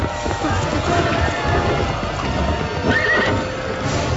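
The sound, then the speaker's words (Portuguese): A horse-drawn carriage pulls away quickly with steady clip-clopping hooves and a rumbling rolling sound, a horse whinnying briefly over the continuous noise. “A carruagem partiu rapidamente, deixando para trás a multidão de espíritos obsessores”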